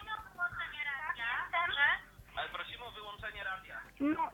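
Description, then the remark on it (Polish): Radio audio playing in the background of a caller's phone call into a live radio programme, with a band-limited, tinny voice talking continuously over low rumbling noise. “Prosimy o wyłączenie tak, radia, tak, jestem.”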